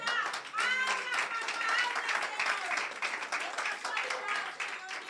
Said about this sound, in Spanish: Dale ese fuerte aplauso a Dios en esta hora.